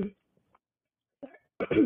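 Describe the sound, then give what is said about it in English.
A few brief coughs and throat-clearing noises, separated by short silences, with the last burst longer and rougher as the throat is cleared. “You know, get all the coughs in.”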